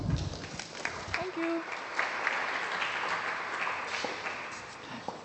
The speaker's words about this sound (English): and tonight we have the New 11 curator Hannah Mathews speaking in conversation with Dan Moynihan, Mark Hilton, yes, a big cheer for Mark, and also Fiona Abicare. Will you please make them very welcome?